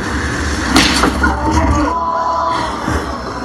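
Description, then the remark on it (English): A sharp, loud open-hand slap to the face cracks out once near the start at a Power Slap League contest, followed by a few fainter impacts against a busy, noisy background of crowd murmur. “And you will see other contestants get up and get slapped to the point where they're almost having convulsions.”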